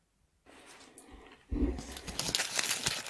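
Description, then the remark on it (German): Crisp crinkling of the foil wrapper of an Easter egg being unwrapped, starting softly then growing louder and denser with sharp rustling crackles, no voices present. “Hörst du dieses Knistern”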